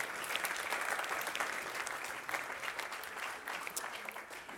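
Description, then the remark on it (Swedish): An audience applauds the sound and video crew as people take their seats after a break: a steady, dense wash of many hands clapping at an even, loud level throughout, with scattered sharper claps standing out and no talking. “Eh, medan folk sätter sig kan vi bara ge en applåd till Axel, Simon och Anton som fixar med ljud och bild.”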